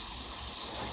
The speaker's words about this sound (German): Ja, und duschen im Hintergrund.